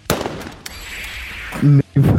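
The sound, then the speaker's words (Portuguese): A sharp gunshot sound effect cracks out at the start as a character is thrown in front of the shot as a human shield. A second fainter report and a lingering hiss follow, before a voice breaks in loudly near the end. “o Muteba pega o Fernando e arremessa ele na frente do tiro”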